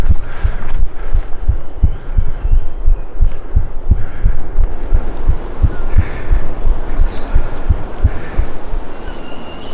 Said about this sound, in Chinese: 我现在在录自己的心跳，在录自己的心跳。